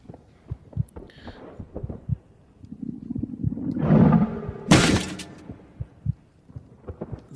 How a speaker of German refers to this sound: Und wenn wir einen richtigen Moment loslassen und das Cursor-Taste hochdrücken, haben wir, dann, wir haben wieder den Herzschlag, volle Energie.